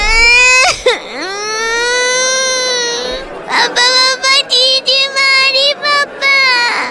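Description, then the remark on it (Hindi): A baby boy wails loudly at a party, starting with one long, high, sustained cry with a sharp catch near the start, then breaking into a string of short, choppy sobbing bursts. “तभी उसके बेटे का भोंपू चालू हो गया”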